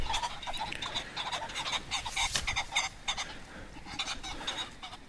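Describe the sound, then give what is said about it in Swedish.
Stressed pheasants call over and over in harsh, raspy bursts, several voices overlapping at a steady pace, with a brief rushing flutter midway as they fly overhead; no one speaks. “Nu blir fasanerna här. stressade.”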